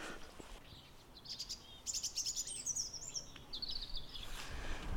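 A European robin sings in a series of high, thin warbling phrases, clear over a soft, steady outdoor background hiss; no one speaks.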